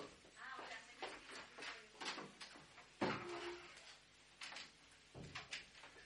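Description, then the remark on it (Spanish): A door is pushed shut with a solid thump around the middle, surrounded by a few softer knocks and rustling handling sounds, with no talking. “Disculpar un segundo que estaba la puerta abierta.”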